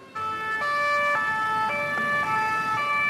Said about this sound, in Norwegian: Utenfor kontoret til Charlie Hebdo kjører ambulansene fra åstedet.